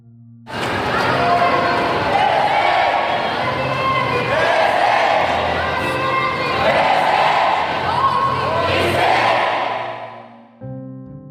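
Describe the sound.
A large crowd at a nighttime protest on Avenida Paulista, Brazil, chants loudly and steadily for about ten seconds, many voices shouting together in a rhythmic, surging chorus before the sound fades out abruptly.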